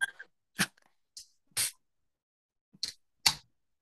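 A rapid string of about six short, sharp sneezes bursts out in irregular succession, close by and moderately loud, with brief silences between them and no talking.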